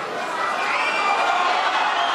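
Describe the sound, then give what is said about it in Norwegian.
A protesting crowd on Maidan Square in Kyiv, Ukraine, late at night, boos and jeers opposition leader Vitali Klitschko as he tells demonstrators of a new agreement curbing the president's power: a dense, continuous roar of many voices that holds at a loud, steady level for the whole two seconds with no single voice standing out. “Opposisjonsleder Vitalij Klitsjko ble møtt med buing da han informerte demonstrantene om den nye avtalen som innskrenker presidentens makt.”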